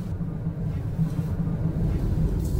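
Steady low rumble inside a moving car driving to Futaba town, site of the Fukushima Daiichi nuclear plant: a continuous droning road and engine hum with slight fluctuations, fairly loud, with no voices.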